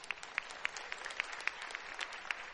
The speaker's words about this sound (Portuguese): Aplauda essa irmã aí, para a honra e glória de Deus.